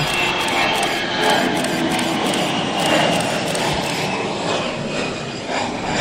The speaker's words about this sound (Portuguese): Este já está. O dia hoje está ganho um avião novo em Lisboa é motivo para ganhar o dia.